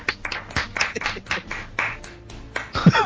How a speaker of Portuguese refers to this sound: Não, eu acho que a gente devia terminar esse cast, cada um dando uma salva de palmas